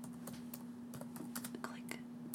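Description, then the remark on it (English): Quick, irregular clicks of fingers typing on a computer keyboard for ASMR, fairly soft, with about a dozen sharp keystrokes over a steady low electrical hum. “Get, okay, like, so we're doing ASMR keys. Get ready.”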